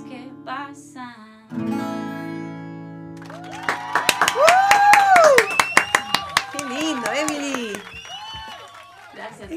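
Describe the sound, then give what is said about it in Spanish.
A burst of irregular hand clapping, about a dozen sharp claps over several seconds, mixed with excited voices and rising whoops, after a few seconds of steady humming tones. “Tenemos, Todo, un, público de aplau, aplaudores.”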